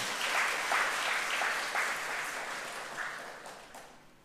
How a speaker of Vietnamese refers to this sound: cho một tràng vỗ tay thật lớn nào